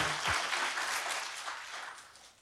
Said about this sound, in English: Yeah, so that's where the gospel's worth clapping for. Clap it up, get it out of your system. It's good.